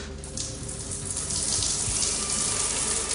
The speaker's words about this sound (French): Bon, je prends ma douche là.